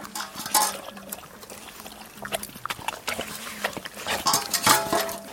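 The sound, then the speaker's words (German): Huskies on a husky tour eat their food of deer, stag, oat flakes and pasta with wet, irregular chomping and slurping, mixed with sharp smacks and the odd clink of a bowl, running steadily for several seconds with no talking. “Ja, ja, die Huskies haben einen gesunden Appetit.”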